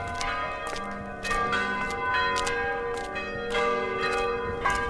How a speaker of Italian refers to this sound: Suonano le campane della chiesa di Santa Giuliana, costruita sulle macerie di un'arcidiocesi del Seicento, buttata giù per allargare la strada in nome di una smania modernista negli anni Sessanta.